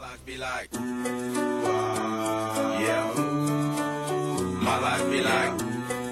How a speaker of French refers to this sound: Écoutez. Vous l'entendez La musique.